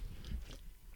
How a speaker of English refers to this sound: We're sitting on the beach. I'm like, let's crack a beer. We'll talk. So I'm gonna sip this real quick.